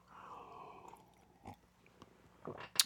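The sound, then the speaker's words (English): A drawn-out slurping sip of coffee, early in the morning in North Carolina, lasting under a second, followed by a few soft clicks and knocks, like a mug being handled and set down, then a brief sharper clatter at the end. “take a sip of Java.”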